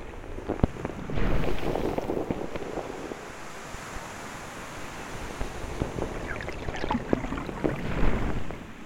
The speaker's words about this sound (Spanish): Disfruta el vaivén de las olas mientras tus pies se sumergen poco a poco entre la arena. quédate ahí sintiendo el agua, la arena entre los dedos. Escucha el sonido del mar.